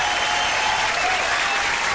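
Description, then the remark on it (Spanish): Steady applause from a crowd, a dense, even wash of clapping that holds at a constant level for the full two seconds without pause. “Algo por supuestamente para aplaudir.”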